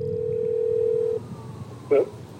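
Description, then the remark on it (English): A phone ringing tone on a call to the current resident of an apartment: one steady, mid-pitched electronic tone that holds for just over a second and cuts off, followed by quiet line hiss and a brief soft blip. “I rung up the current resident.”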